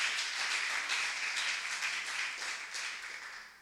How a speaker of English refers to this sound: How many of us could give God a clap offering just for him dying and resurrecting and giving us eternal life in his presence?